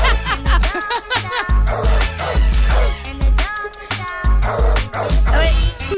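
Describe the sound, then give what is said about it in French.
A loud rap track with a thumping bass beat, dogs barking in short repeated bursts woven through the music and blending with the vocals. “donc c'est un rappeur qui lui avait déjà sorti une chanson, mais avec des chiens.”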